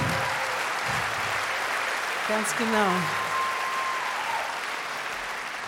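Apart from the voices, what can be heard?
audience applause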